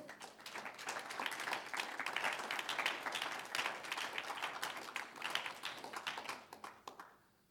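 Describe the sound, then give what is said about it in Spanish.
An audience claps together in steady, dense applause to the Lord lasting several seconds, a continuous patter of many hands at fairly even loudness before it quickly fades out at the end. “Un aplauso al Señor.”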